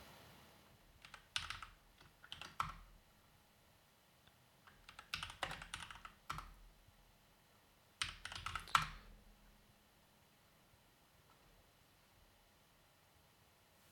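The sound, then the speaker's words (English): Rapid computer clicks and keystrokes come in three short, busy bursts separated by pauses, fairly quiet, with nobody speaking and a faint background hum. “um, no, I'm just clicking shit.”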